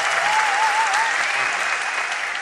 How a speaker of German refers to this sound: Einen Applaus bitte für den Klappentextleser.